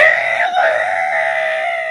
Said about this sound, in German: Ein Törö ertönte. Ein langer Rüssel erschien und zwei weiße Stoßzähne ließen Kalle die Ohren zu Berge stehen. Er war also bei den Elefanten gelandet.